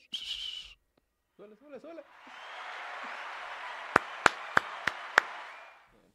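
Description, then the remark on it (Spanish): A sharp whistle-like tone and a short vocal sound give way to a swell of applause from a sound-effect button played by a show's producer, lasting about four seconds, with several loud, distinct claps standing out near the end before it fades. “A aplausos, pónganos aplausos.”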